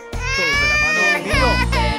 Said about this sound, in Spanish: esta hermosa canción y estos niños llorando para que la acompañen en la dulzura.